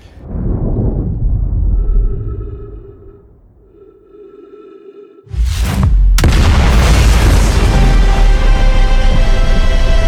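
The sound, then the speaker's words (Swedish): A low rumbling drone with faint sonar-like tones builds tension, then a sudden massive explosion booms out and rolls on as a loud, sustained roar with no voices. “Och så kommer det liksom, ja, plötsligt så inser du då, eller jag insåg, att man då bevittnar ett nytt Big... Big Bang, ja. Ja, Bang.”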